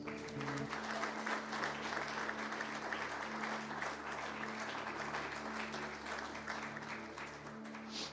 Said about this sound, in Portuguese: Aplauda Jesus, queridos.